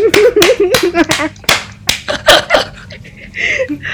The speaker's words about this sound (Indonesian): Weh, tepuk tangan dulu dong.